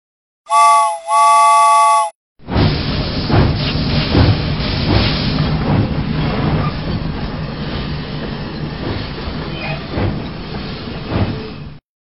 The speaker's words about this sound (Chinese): 于是，他鸣了两声汽笛，缓缓地停了下来。